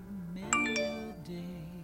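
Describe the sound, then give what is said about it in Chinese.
A short, bright chime of a mobile phone text message alert, received while walking along a road, a few quick ringing tones in succession, sounding over a steady low background tone. “那天我一个人走在路上，突然收到你这样一条短信。”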